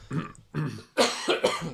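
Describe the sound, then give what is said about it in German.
A series of four harsh coughs in quick succession, the later ones louder and more forceful, with no talking in between. “Diese vermaledeite Husten geht mir auch ganz hart auf den Sack.”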